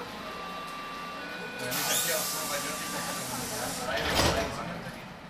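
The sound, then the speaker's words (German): A sci-fi teleport beaming effect: a faint electronic hum swells into a loud, shimmering hiss for a couple of seconds, then ends in a brief sweeping whoosh. “ich beame mich mal schnell in die Ohrenblicke-Studios”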